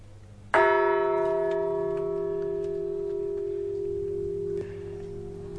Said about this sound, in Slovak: Tak skúsme to. Teraz udriem na zvon, ktorý má názov Svetý Michal.